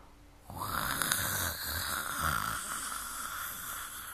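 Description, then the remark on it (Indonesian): A deep, rasping tiger roar bursts in after a brief quiet moment and rumbles on for several seconds, loud, with a rough, growling texture and no voices. “Itu suara harimau ya?”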